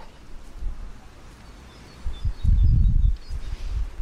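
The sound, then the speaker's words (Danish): Faint spring birds in a park in Copenhagen chirp and sing in short high calls over a low, gusty rumble of wind or handling noise outdoors, with no one talking. “Hvis jeg lige stopper op og lytter nu, så er det vist mest øh, lyden af forårsfugle, jeg kan høre.”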